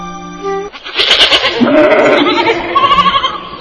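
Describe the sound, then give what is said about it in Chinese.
Several goats bleat in overlapping, wavering calls, loud and nasal with a shaky tremolo, following a brief steady tone at the start. No one speaks. The goats are licking at tree trunks. “哎，奇怪了，那些山羊在那儿干什么呢？”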